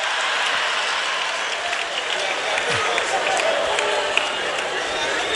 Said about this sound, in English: You are clapping for yourselves.